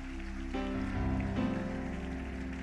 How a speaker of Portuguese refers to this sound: A igreja pode aplaudir.